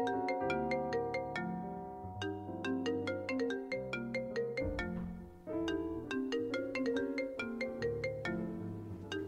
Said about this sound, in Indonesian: Jam segini siapa sih? Handphone bunyi.